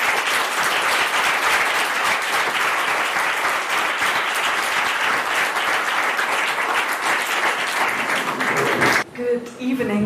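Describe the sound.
A crowd applauds loudly and steadily for about nine seconds, a dense wash of clapping that cuts off abruptly, followed by a brief moment of a voice beginning to speak.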